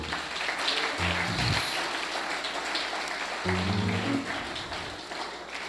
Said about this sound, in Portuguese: Vamos aplaudir o Senhor por esses irmãos aí.